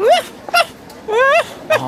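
A dog whimpers in two drawn-out, wavering whines, each followed by a short, sharp yip, four high-pitched cries in under two seconds.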